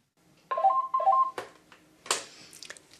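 A telephone rings nearby with two quick electronic trilling bursts, then a few sharp clattering knocks follow before things go quiet.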